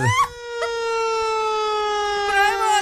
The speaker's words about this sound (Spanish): búscame en este momento ahí en la computadora una sirena de bomberos